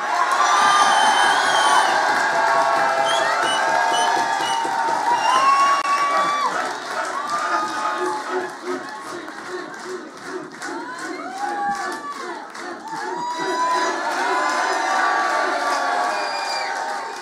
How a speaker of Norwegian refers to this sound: Så jeg vil at dere skal klappe litt ekstra og juble litt ekstra høyt